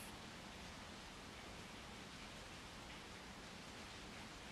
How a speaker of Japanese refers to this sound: 外では今雨が降っています